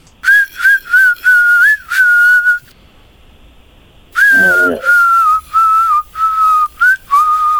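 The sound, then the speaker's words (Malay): A melody whistled by people in short phrases, a clear steady tone rising and falling like a song tune, with a brief pause midway before the whistling resumes, fairly loud. “Dah dengar dia orang bersiul lah tu dah.”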